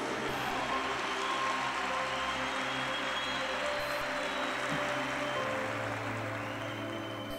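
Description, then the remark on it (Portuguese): A large church audience applauds steadily and loudly for several seconds in an ovation for Jesus, a dense wash of clapping with faint sustained instrumental tones underneath and no one speaking. “Uma salva de palmas para Jesus.”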